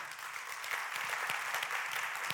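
A room full of people claps steadily, a dense crackle of many hands sustained at an even level throughout, moderately close with no voices standing out.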